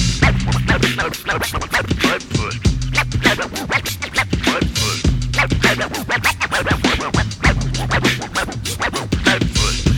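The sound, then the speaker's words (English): A DJ scratches records in rapid, choppy bursts over a steady, funky drum beat with a thumping bassline, loud, with no one talking. “listen to the funky beat while my DJ Kamasu Kufi cut up with the name of this dancer”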